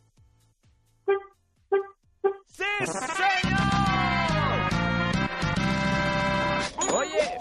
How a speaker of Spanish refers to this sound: ¿puedes tocar el claxon tres veces para comprobar que vas en tu auto? Sí, claro. Te escucho.